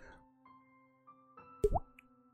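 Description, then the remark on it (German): A single hollow, rising plop, a water drop imitated with the mouth by flicking the cheek and then blowing or pushing the air out with the tongue. It is short, with a faint steady hum in the background. “Ich schnippe mir an die Backe und puste dann oder drücke mit der Zunge die Luft raus. Und das ergibt dann diesen dieses Tropfengeräusch.”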